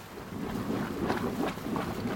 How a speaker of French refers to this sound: L'eau rentre en ébullition entre les deux bateaux.